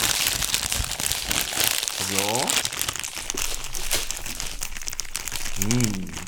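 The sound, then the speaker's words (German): A plastic bag crinkles and rustles as some pastry is taken out of it, a continuous crackly handling sound lasting several seconds, with a couple of short voiced murmurs breaking in over it. “Ich nehme etwas Gebäck aus der Tüte.”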